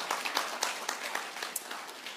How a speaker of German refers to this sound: Ich möchte, dass ihr euch einfach mal einen Applaus gebt für das, was ihr hier auf die Beine gestellt habt.